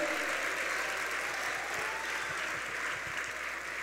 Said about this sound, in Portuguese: Gente, aplauda Jesus, tem mais gente vindo, aplauda Jesus. Aplauda Jesus, aleluia.